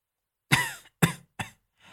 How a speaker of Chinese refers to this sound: 他咳嗽了几声，